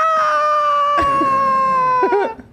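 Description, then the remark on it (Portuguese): A person lets out a long, loud, high-pitched yell, held steady for over two seconds and wavering near the end, a voice imitating a dominant, chest-beating shout. “Porra, imagina se existisse Aquele fato... seu grito do macho alfa.”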